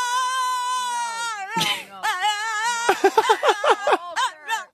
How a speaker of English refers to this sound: Check out this dog. You cannot keep interrupting. This is a dog.